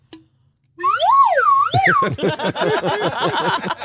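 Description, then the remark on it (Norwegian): A whistle is blown loudly, first a smooth tone swooping up and down in pitch, then a rapid run of chirping, warbling pulses until the end. “du får fløyta, blås i fløyta di.”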